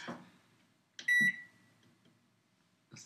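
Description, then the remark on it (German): A single loud, sharp electronic beep from a microwave oven, with a few soft clicks and clatter of handling around it and no one speaking. “Okay, wir dürfen jetzt nur noch Effekte nutzen. Mikrowelle nutzen.”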